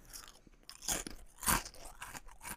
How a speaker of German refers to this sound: ich esse nebenbei ein paar Chips